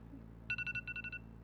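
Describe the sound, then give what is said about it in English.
A phone alarm ringtone going off on waking chirps out eight quick electronic beeps in two rapid bursts of four, clear, over a low steady background hum with no one talking. “you gonna let it ring on your roommates too?”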